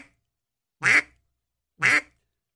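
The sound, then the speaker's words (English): Two short, clipped duck quacks about a second apart, loud, each with a nasal buzzy tone; likely made by a person or a call rather than a real duck, with silence around them. “Uh, one of the common mistakes a lot of people make is they're making the quack too long.”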